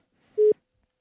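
A single short, steady telephone ringback tone pulses once, clear and close, ending in a brief click. No voices are present.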